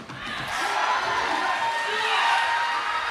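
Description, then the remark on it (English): An audience shouts and cheers during a sermon in a loud, sustained roar of many voices, with scattered whoops rising above the steady crowd noise. “Somebody needs to be shouting right here because it lets you know the devil's not in your way.”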